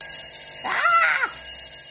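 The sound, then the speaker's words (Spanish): A time-up buzzer sounds once, a brief harmonic tone lasting about half a second whose pitch bends up and then down, fairly loud with no one talking over it. “No, esa chicharra maldita, ni modo, me quedaré con ganas de seguir hablando de la, maravillosa encuesta popular.”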